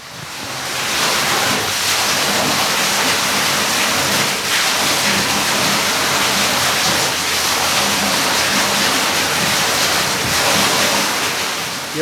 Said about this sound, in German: plätschert nämlich noch ein Mühlrad vor sich hin. Es ist wunderschön anzuschauen.